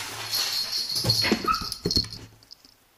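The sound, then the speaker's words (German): A cat named Mia makes strange noises: a run of short whimpering, whiny cries with a thin, high squeak among them, fairly loud for about two seconds before trailing off into quiet. No one speaks. “Mia, was, Mieze, was machst du denn für Geräusche?”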